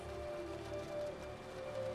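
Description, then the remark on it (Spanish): Heavy rain falls steadily in a continuous, even hiss, fairly soft, with a faint low hum running beneath it and no voices. “Y una espesa lluvia cae constantemente sobre Arca.”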